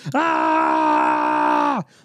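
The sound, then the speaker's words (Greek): A person vocally imitates a distressed cat that never meowed, with one long, loud, strained groan, held steady for nearly two seconds before dropping off abruptly. “Δεν έκανε ποτέ νιάου, έκανε μόνο.”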